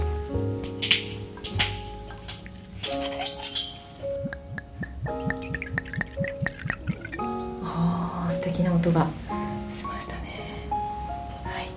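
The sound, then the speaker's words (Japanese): Ibaraki sake, made with Mount Tsukuba water, poured from a bottle: a steady trickle with gurgling glugs whose pitch rises as the cup fills, lasting several seconds with faint background voices. “人があの筑波山の筑波山の水の話をしたからすごく水が美しい音がしましたよね”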